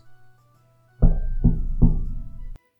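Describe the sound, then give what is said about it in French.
Three heavy, booming knocks on the wooden door of a house, evenly spaced, each with a short resonant ring, after a moment of near silence; no voices. “Un jour, alors qu'il venait à peine de rentrer chez lui, après une journée de travail particulièrement éprouvante, il entendit quelqu'un s'approcher de sa maison.”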